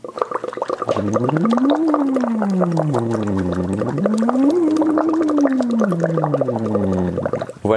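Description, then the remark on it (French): Steady bubbling through a straw into a cup of water, carried on a hummed voice that glides smoothly up and down in pitch twice over about seven seconds, with no spoken words. “Donc une paille, un gobelet, de l'eau et vous faites des bulles.”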